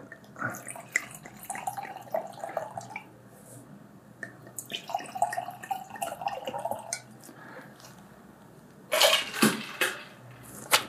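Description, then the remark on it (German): French white wine, a Chablis, is poured into glasses, a soft gurgling, splashing trickle that comes in uneven bursts, ending with a louder, brighter rush of liquid. No one speaks. “Wir nehmen einen französischen Weisswein, habe ich gedacht.”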